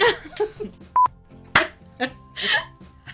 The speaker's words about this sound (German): es klingelt an der Tür.